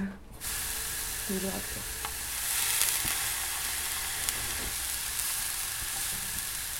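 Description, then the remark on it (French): A very large aubergine sizzles steadily in a frying pan as it is browned, a constant bright crackling hiss with a few soft clinks and scraping stirs, running the whole time without any talking. “on va faire notre aubergine qui est vraiment énorme”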